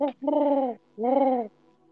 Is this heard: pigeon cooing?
yes